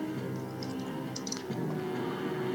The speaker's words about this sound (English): So that's uh, two d four plus three that I am going to roll. I'm gonna use my new potion-looking dice.